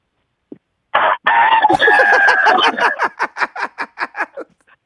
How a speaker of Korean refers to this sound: 네, 닭입니다, 닭. 닭, 닭.